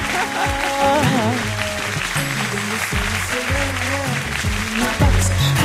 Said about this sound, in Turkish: e, burada toplantı yapan gerçekten Radyo Dumlupınar ekibini takdir ediyorum. Teşekkür e, ederiz. Onlara buradan bir alkış diyormuş.